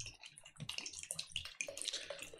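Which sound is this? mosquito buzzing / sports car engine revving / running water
running water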